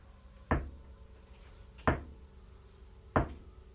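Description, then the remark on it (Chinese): Three slow, evenly spaced knocks on a wooden house door at night, each a solid dull thud with a short sharp attack, separated by over a second of quiet background hiss. “他这个敲门的声音是这样的”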